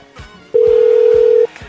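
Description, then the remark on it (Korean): A loud, steady telephone dial tone sounds once for about a second as a radio host places a call to a listener, a single unbroken pitch, with a faint rhythmic backing beat underneath and no talking. “전화 걸어주세요.”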